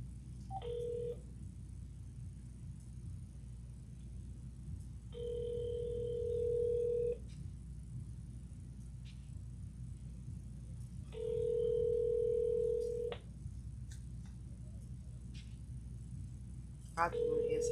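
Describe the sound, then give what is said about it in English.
A telephone dial tone sounds in steady two-second bursts separated by roughly four-second gaps, clear, repeating three full times over a low background rumble. “You got a dial tone.”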